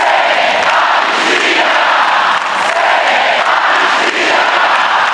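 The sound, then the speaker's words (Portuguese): A huge crowd in Brasília on the first day of the year chants a slogan in unison, a loud, dense roar of many voices rising and falling in a steady rhythm, sustained throughout without a break. “Pois é, o recado foi dado em alto e bom som por aquele mar de gente que tomou Brasília no primeiro dia do ano.”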